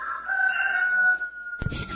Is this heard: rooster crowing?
yes